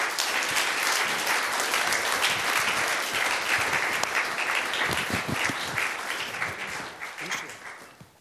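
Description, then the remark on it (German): An audience breaks into sustained, dense applause for three people who shared testimonies, many hands clapping loudly and steadily before gradually fading out toward the end. “Gebt doch Ihnen drei einen lieben Applaus”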